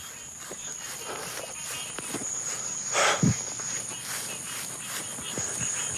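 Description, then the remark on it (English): A steady, high-pitched drone of crickets chirping at night in the backwoods near a house, with soft footsteps of a runner crunching along a trail and a brief louder rustle partway through. “sharing his workout space with snakes and frogs and crickets, foxes, panthers.”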